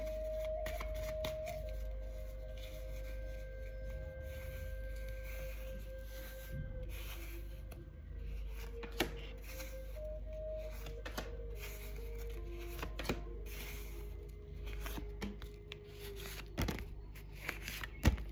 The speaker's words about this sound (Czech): A já už se dívám na vaše fotky, míchám u toho karty a my si povíme, co nám Tarot poví o tomto partnerském vztahu.